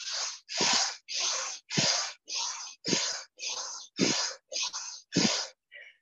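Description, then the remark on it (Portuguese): Vigorous rhythmic yoga breathing accompanied by movement: about ten forceful, loud inhales and exhales in a steady quick rhythm, with no talking, the last breath trailing off softer. “tem a respiração vigorosa, que ela é uma respiração acompanhada de movimento.”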